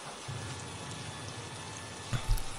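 Steady rain patters down outside a McDonald's restaurant in a continuous soft hiss, with a few heavier thuds of drops near the end and no voices.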